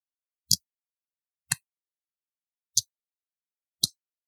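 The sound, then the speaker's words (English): Four crisp metallic snaps of a Jack Wolf folding knife blade opening and closing, evenly spaced about a second apart, held in front of the mic, with silence between them and no talking. “Uh, this also has signature amazing walk and talk, which I'm going to put in front of the mic here see if you can hear it.”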